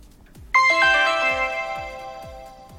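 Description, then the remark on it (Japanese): A phone's electronic ringtone for an incoming call suddenly begins during a live stream, bright chiming notes stacking and ringing out loud, while faint rhythmic low thumps pulse steadily in the background. “ライブ中の電話着信どうしてますあなたはライブを聴いている時に配信者が着信した経験ありますか”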